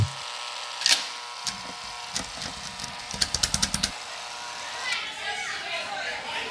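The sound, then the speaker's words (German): A short produced jingle for a community-questions segment, built from a children-at-play soundscape, with kids' voices, scattered sharp clicks, and a quick rhythmic run of tapping bursts in the middle, fairly quiet overall. “Ja, aber wir müssen jetzt mal wieder den Jingle reinbringen von, für die Community-Fragen.”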